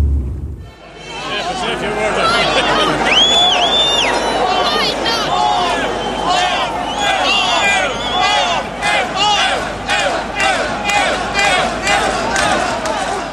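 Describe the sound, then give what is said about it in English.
A large protest crowd fills the air with loud, overlapping shouts and voices, sustained and dense throughout, with rhythmic bursts of chanting amid general babble, on Molesworth Street, Dublin, at 1 pm on Wednesday 22 October, against a government cut to over-70s' medical cards. “This is what this collective anger sounds like by Wednesday, the 22nd of October. 1 pm, Molesworth Street, Dublin.”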